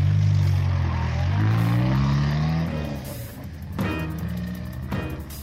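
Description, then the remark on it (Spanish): A car engine revs up with a rising hum, then the sound thins out and fades as the car pulls away from Pershing Square toward the eastern highway while it is snowing, with no voices. “viendo el coche de Peter Osborne como se alejaba hacia la autopista del este”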